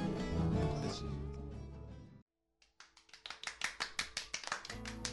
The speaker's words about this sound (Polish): Brawo! Brawo! Ovation!